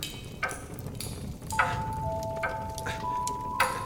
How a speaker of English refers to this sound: Ticking? The clock had stopped. I wound it. Uh, no. No, you, you shouldn't have done that. I can't abide clocks. Constantly ticking away, trying to break the day into pieces. Vile. Vicious things, clocks.